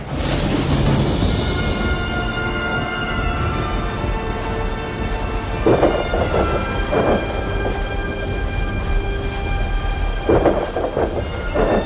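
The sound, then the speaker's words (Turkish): A loud thunderstorm with heavy rain pouring steadily and deep thunder rumbling, with several rolling cracks swelling midway and near the end. “Her taraf kapkaranlık şimşekler yıldırımlar. Gök delindi sanki efendim.”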